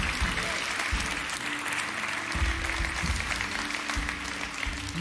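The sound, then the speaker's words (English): An audience claps hands in a steady, dense wash of applause that holds through the whole stretch, with a low sustained hum and faint voices underneath. “Come on and clap your hands all over the room today.”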